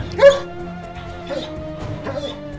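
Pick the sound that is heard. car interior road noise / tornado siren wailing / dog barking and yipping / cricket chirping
dog barking and yipping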